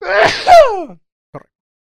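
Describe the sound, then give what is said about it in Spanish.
A single loud sneeze bursts out with a voiced, falling cry, followed by a moment of quiet and a brief soft breathy sound. “Salud.”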